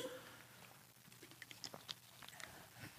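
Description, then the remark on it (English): Quiet sipping from a drink: a few soft slurps and small wet mouth clicks and swallows over a few seconds, with no talking. “And I need to take another sip as we look at the second point, which is”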